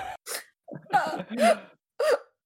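A muffled sneeze, as if into an elbow, fairly loud, preceded by a few short breathy gasps and voiced catches building up to it, with no talking.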